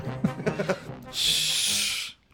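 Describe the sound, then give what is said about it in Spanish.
A brief stretch of talking gives way to a steady, breathy hiss, a voice imitating the shower spray of Cristian de la Fuente that holds for about a second before cutting off. “Amiga, ¿cómo suena la ducha de Cristian de la Fuente?”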